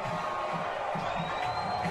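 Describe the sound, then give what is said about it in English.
A big stadium crowd of Newsome fans roars and boos at the visiting Hurricanes team coming onto the field, in a steady, continuous wash of noise, with low drawn-out jeering swelling now and then beneath the broad din. “coming out to a roaring booze over here from the Newsome crowd, and they have a very good crowd here tonight.”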